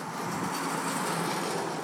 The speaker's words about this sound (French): Je tiens à souligner que les dernières entrées, comme vous pouvez le noter par cette voiture qui passe à l'instant,